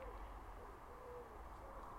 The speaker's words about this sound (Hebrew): אה, מה אני שומע פה בעץ? ציפור? אני רואה כן. כנראה יש פה ציפור, אבל אני לא רואה אותה. אבל אני רואה כן, איזה מגניב.